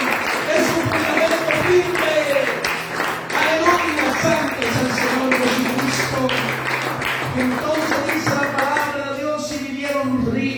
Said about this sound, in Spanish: Den aplauso al Señor.